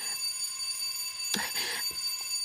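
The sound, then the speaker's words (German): A doorbell rings continuously and insistently, its shrill tone sustained throughout, with a sharp clattering burst partway through. Fairly loud, with no voices. “Und jetzt läutet es schon wieder.”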